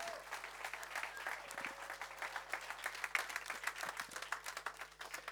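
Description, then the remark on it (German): A crowd gives a hearty morning applause as greetings to German-speaking viewers in Austria, Germany and Switzerland; dense overlapping hand claps form a continuous rattling wash at an even level for several seconds, with no one speaking over it. “und wir schicken euch unsere besten Grüße und tun wir das bitte mit einem kräftigen Applaus heute Morgen.”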